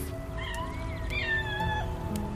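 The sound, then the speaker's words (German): A white kitten meows in a thin, high, drawn-out cry, one long wavering call followed by a shorter one, against a low steady background hum, as a firefighter on a turntable ladder carefully grabs it. “und schnappt sich dann vorsichtig das weiße Kätzchen.”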